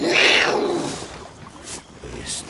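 A tiger lets out a loud, rough roar, strongest at the start and fading into a quieter growling tail over a couple of seconds.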